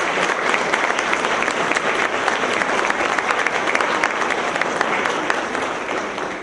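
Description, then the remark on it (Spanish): An audience applauds magistrates, a commissioner and national authorities steadily for several seconds, a dense, even wash of many hands clapping at a loud, constant level with no one speaking over it. “Magistrada, comisionada, autoridades responsables en este país, démosles un aplauso porque se están preocupando de lo más importante.”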